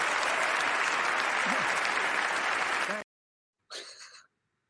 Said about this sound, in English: Dude, we've got to look at this second guy clapping. Best clapper goes. To, this is the opposite. This is if you did an inverse of Nicole Kidman's clap. Check this second dude out, and he's pretty happy with himself with how he's going.